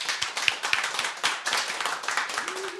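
Steady applause from a group of people for the guests at the end of a broadcast at Fountain House on Götgatan 38 in Stockholm, dense overlapping claps forming a continuous crackling wash at moderate loudness with no voices over it.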